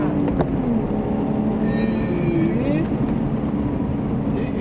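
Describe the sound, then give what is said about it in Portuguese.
Loud, steady wind noise roars and buffets against the microphone throughout as the speakers move a little fast, a dense low rumble like air rushing past, with some reverberation and faint muffled voices underneath. “Quando a gente, a gente anda um pouquinho rápido aqui, dá muito som, muito vento. E reverberação.”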